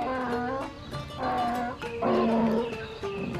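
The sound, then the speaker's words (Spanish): A donkey brays loudly in a series of about four long, harsh harmonic calls, the pitch swinging up and down between them like a rough hee-haw. No voices are heard. “Y anuncian la presencia de depredadores con sus rebuznos largos, 20 segundos de alarma, que llegan hasta sus hermanos a kilómetros de distancia.”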